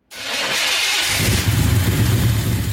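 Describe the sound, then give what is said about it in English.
An engine cranks over and catches, settling into a loud running rhythm with a rapid, uneven popping and knocking beneath a hissy, rushing layer: a combustion engine knocking as its fuel explosions ignite too early in the cylinders. “Knocking is when the explosions ignite early and you get that popping sound.”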